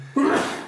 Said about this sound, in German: Oh, ich muss gleich wieder niesen. Nies ruhig.